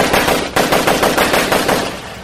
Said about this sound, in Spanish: Por ahí vas a oír, o la gente oye, descarga de metralleta.